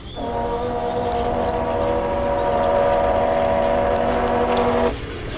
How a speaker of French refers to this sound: Coupe le moteur, Kader, coupe tous au fond de la barque.